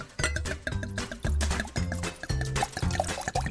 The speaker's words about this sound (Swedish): Det här är ett väldigt kraftigt vin. Så det behöver luft. Nu gör det här i god tid. Hoppas att de inte tycker att det är för kraftigt. Sådär. Nu gör jag min lilla vanliga luftning. Jag häller upp i glasen.